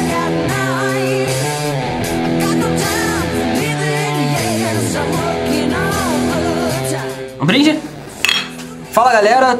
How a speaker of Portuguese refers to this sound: Saiu meio esquisito o brinde hoje.